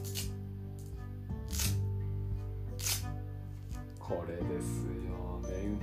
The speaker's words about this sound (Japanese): マジックテープは商用登録されているので正しくはメンファスナーホッチキスと同じ原理ですね